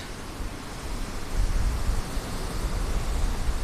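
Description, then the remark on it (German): Steady roar of ocean waves with a heavy low rumble, swelling slightly partway through and staying fairly loud throughout, with no voices. “Ich glaube, die Wellen hört man trotzdem.”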